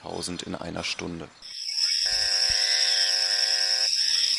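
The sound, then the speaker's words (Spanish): After a brief stretch of speech, a toad gives a long, unbroken croaking trill: a steady, loud, high buzzing drone with a rich harmonic hum that carries on alone to the end. “Hay sapos que croan hasta 10.000 u 11.000 veces por hora.”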